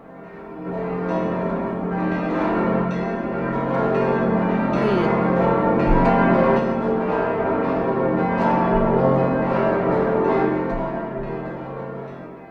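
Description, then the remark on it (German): Church bells ring out continuously, several bells overlapping in a full, resonant peal that stays loud and steady for the whole stretch before easing off at the end. No one speaks. “Na Kinder, könnt ihr euch schon denken, wo man dann hingeht, wenn man solche Glocken hört?”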